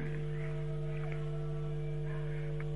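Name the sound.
phone line interference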